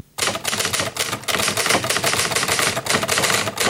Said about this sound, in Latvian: viņai šī konkrētā torpēdo rakstāmašīna ir bijusi ārkārtīgi smagi spiežama, un to pārrakstīšanas darbu ir veicis viņas vīrs. Tad zēntērgli ir rakstījusi ar roku, Jā. bet vīrs ir rakstījis uz šīs eh, smagnējās eh, torpēdo rakstāmās.